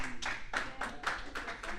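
An audience claps for the presentation of the Onyx Onky Spirit of Pickleball Award, in a steady, fairly quick rhythm, bright sharp hand claps blending together at moderate loudness, with no voices over them.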